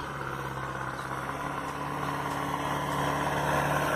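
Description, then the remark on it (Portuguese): A tractor engine drones steadily outside in Turvo, a low, continuous diesel rumble with a mid-range hum that grows slightly louder toward the end. No one speaks. “Gente, desculpa, a gente mora no turvo, ou seja, trator.”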